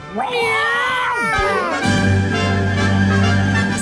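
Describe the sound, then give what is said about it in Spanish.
A person imitates a long, wavering cat meow, its pitch swooping up and down, then a steady droning tone takes over. “Oye, hoy viene el Día del Gato, así que esfuércense, por favor.”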